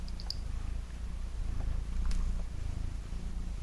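Mia, an old eight-year-old cat, purrs in a steady, low, continuous rumble that fills the whole few seconds, with a faint rhythmic pulse and a couple of soft high ticks above it. No one speaks.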